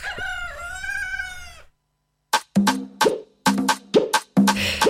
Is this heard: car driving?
no